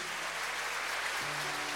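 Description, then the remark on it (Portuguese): An audience applauds Christ in a dense, steady wash of clapping that fills the whole clip, with a low sustained tone entering partway through beneath the applause. “Vamos aplaudir a Cristo, irmãos.”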